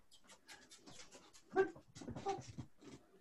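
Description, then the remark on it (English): A female full-blood Australian Shepherd, just up from snoozing, pants in quick, breathy bursts, stirring restlessly, with a couple of short whimpering whines breaking through midway. No one speaks. “I was told she's a full blood Australian Shepherd, but she.”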